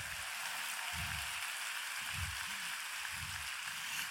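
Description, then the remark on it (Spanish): An audience claps loudly, a dense, steady wash of applause lasting the whole stretch, with faint low thumps pulsing roughly once a second underneath and no voices. “Si le vas a dar un aplauso, dáselo fuerte.”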